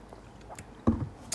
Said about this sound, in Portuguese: a minha voz está mesmo toda lixada, ouvi, vou beber água.